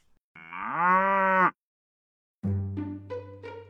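dairy cow mooing

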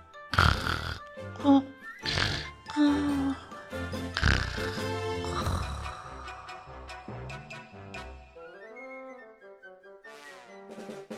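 snoring

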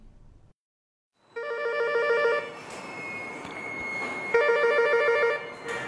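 telephone ringing

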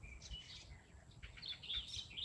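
sparrows chirping

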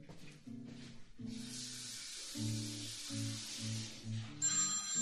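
telephone ringing

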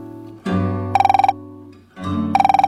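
mobile phone ringing

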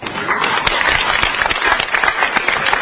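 audience applause

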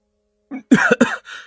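a few coughs

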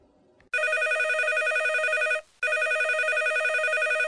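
telephone ringing

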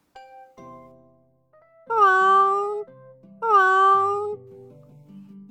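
cat meowing

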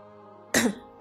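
man coughing

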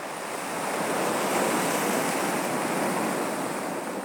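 ocean waves

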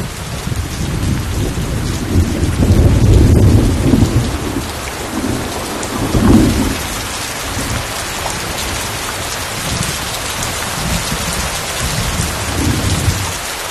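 thunderstorm with heavy rain

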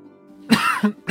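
violent coughing

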